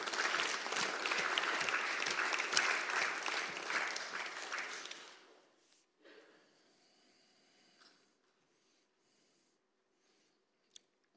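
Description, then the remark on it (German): A crowd claps steadily for talk guests from Persia and their translator, a dense, crackling wash of applause for about five seconds, then it fades out, leaving near silence with a few scattered faint claps and a single sharp tap at the end. “gebt ihnen noch mal einen ganz großen Applaus.”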